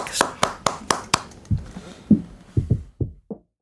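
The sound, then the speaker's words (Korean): Brief applause: about half a dozen sharp, evenly spaced claps in quick succession, followed by a run of softer, low, muffled thumps that fade out. No one speaks. “자, 박수로 청해”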